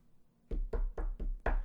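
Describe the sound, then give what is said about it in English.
Five firm knocks on a door in a quick, even rhythm, each a sharp thud with a short resonant tail, fairly loud with no voices. “And right in the middle of the stream, somebody knocking at the door.”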